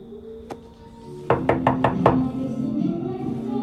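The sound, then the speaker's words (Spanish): A single knock, then a quick series of five sharp raps on a door, fairly loud, with a low background hum continuing afterward; no one comes to the door. “Nadie ha venido a la puerta, pero creo que podemos proceder con cuidado.”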